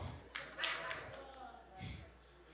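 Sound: audience clapping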